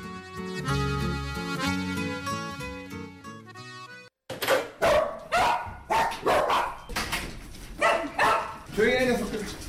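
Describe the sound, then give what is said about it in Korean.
A few seconds of tuneful music give way to a chorus of abandoned dogs barking at an animal shelter run by the Tinkerbell Project in Hwagok-dong, Gangseo-gu, Seoul, as they run up wagging their tails when a man enters. The sharp, loud, overlapping barks repeat in a steady, excited rhythm until the end. “한 사내가 들어오자 강아지들이 일제히 꼬리를 흔들며 달려옵니다.”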